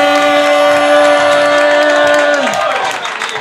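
An audience at Roast Battle Denver applauds and cheers in a steady, loud wash of clapping as a comedian is introduced. A sustained humming tone runs underneath and slides down in pitch just before the end.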